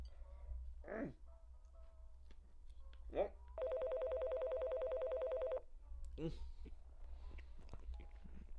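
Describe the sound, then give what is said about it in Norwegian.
A telephone rings again in one loud, rapidly trilling burst lasting about two seconds, with short vocal sounds from a person just before and after it. “Men det var ikke før han hadde fått lagt eh, beina på bordet, så ringte jo telefonen på nytt.”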